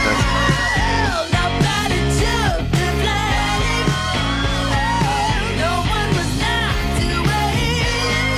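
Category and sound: singer screaming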